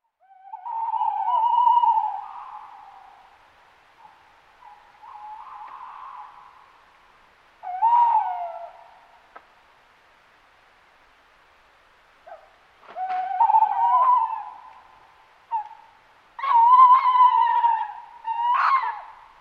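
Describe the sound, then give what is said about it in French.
An owl hoots in a series of drawn-out, wavering calls, about five bouts separated by short pauses. It sounds clear, with no talking. “C'est un hibou.”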